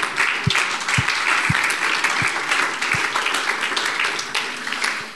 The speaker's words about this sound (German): Ärztlich so bestätigt, dass die Ärzte sogar sagen, ja, lass uns dem Herrn dafür einen Applaus geben.